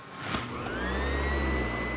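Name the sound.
vacuum cleaner running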